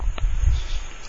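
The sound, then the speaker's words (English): A steady, faint high-pitched trilling of crickets and tree frogs carries through the night air at 12:30 a.m. in Alabama, continuous over a low rumble, with one brief soft click; a warm night of about 78 degrees, not very windy, heard from a screened-in office. “You can hear the crickets and the tree frogs in the background.”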